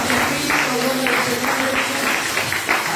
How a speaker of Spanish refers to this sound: Date un aplauso al Señor.